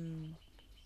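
A single short, low cooing call of an unfamiliar bird sounds, then fades into quiet woodland background on a forest path among mostly deciduous broadleaf trees.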